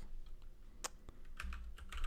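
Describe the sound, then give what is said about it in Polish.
Irregular bursts of computer keyboard typing, a quick run of sharp clicks and taps with a heavier clack near the end, no one speaking. “Dobra, pisze.”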